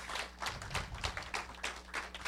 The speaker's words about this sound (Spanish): Den un aplauso al Señor, mi amado hermano.